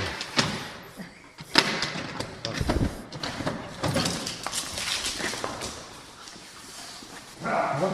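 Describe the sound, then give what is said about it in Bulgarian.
A police drug detection dog searches for narcotics, with bursts of sniffing and scuffling punctuated by soft thumps and knocks, like it is nosing around bags and a door, with faint voices in the background. It finds marijuana. “Кучето не би трябвало това да му да оказва някакво влияние.”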